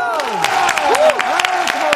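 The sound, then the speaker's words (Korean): Lively clapping from a small group rings out, mixed with excited whoops and cheering voices that rise and fall over the steady patter of hands, celebrating the news that the group was chosen as cosmetics advertising models. “박수!”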